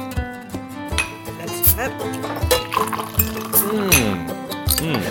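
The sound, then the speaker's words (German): A sip of a yellow drink is poured into a glass for tasting, with a light liquid trickle and a few soft clinks of glassware, while people talk over it. “Ich gieße jetzt mal einen Schluck ein und probiere mal.”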